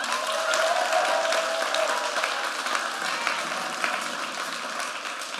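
An audience applauds steadily, a dense wash of many hands clapping at an even, sustained loudness throughout with no voices standing out.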